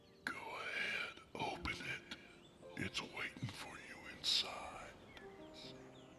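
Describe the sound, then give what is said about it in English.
A breathy, eerie whisper drifts through the trees in hushed, wavering bursts, with faint airy ambience and a few thin squeaky tones around it, quiet with no clear words. “As he stood there, the same fleeting voice he heard on his porch whispered through the trees.”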